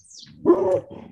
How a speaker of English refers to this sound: Sorry, that's my dog in the background.